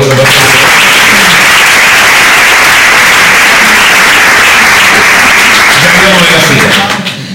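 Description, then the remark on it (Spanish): Loud, sustained applause from an audience for two people fills the whole clip, a dense wash of many hands clapping with faint voices mixed beneath, tapering slightly at the very end. “Un aplauso para los dos.”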